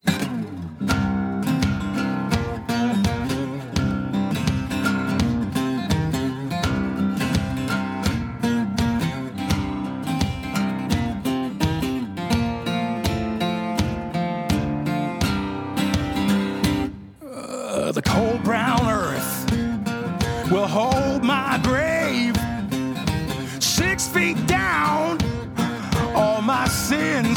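A loud blues rock song with a full band and a driving, steady beat. It stops briefly about two-thirds through, then comes back with a looser, wailing melodic line over the band.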